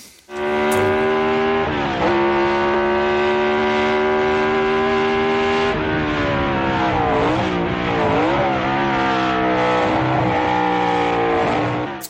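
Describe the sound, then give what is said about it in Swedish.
A V8 racing car engine roars loudly and continuously, its rich droning pitch rising and dipping as it revs and shifts, with no voices present. “Vad var det för motorer då? det var väl V8 på den väl?”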